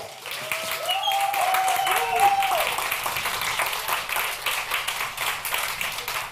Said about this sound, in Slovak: Ja si rada pýtam potlesky, som tým celkom známa. E, možno, že sa to ešte zopakuje párkrát, ale teda tento potlesk bol pre celý tento event a pre všetkých, ktorí sa dnes na tom podielali.